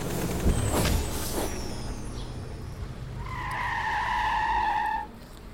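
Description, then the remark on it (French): A large bus pulls in with a rumbling engine in a small, quiet street in central Paris, then a sustained high-pitched brake squeal rises for about two seconds before the vehicle comes to a stop. No one speaks. “Le bus se matérialisa dans une petite rue discrète du centre de Paris.”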